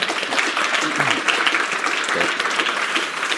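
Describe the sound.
Steady, dense applause from a crowd fills the whole stretch, a continuous wash of many hands clapping at once, with a faint voice briefly audible underneath.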